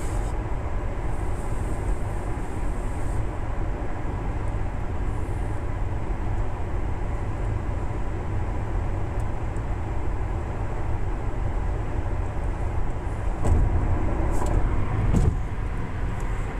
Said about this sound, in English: if you're wondering why you heard me go, I have to slow down. I am in the mobile car studio, and I was going a bit faster around a, a corner